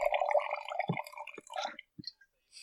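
The last sip of wine trickles and glugs into a glass, a short gurgling pour followed by a few separate drips and small splashes before it trails off.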